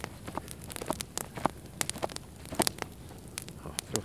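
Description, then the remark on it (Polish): A small campfire being lit and fanned with a cap crackles and pops irregularly as it catches, sharp snaps scattered over a soft hiss, moderately loud, with no voices. “To jest takie ogólne wtedy rozpalenie ognia.”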